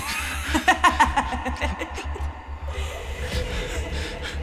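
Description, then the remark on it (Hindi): A monstrous 20-foot-tall woman's sinister laugh rings out very loudly in Edward Palace in quick, rhythmic bursts over a low droning rumble, strongest at the start, then trailing off into murky ambience. “चीख सुनकर वो भयानक औरत बहुत तेज आवाज में हंसने लगी”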